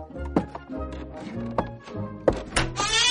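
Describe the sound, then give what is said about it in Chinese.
Dorothy opens the door of her house after a tornado, letting in a bright light: a few dull clunks and knocks from the latch and wood, spread over about three seconds, while low sustained tones hum steadily underneath. “门开了，一道光照得多罗西睁不开眼睛。”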